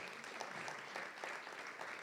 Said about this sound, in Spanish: Si lo cree, déle un aplauso al Señor.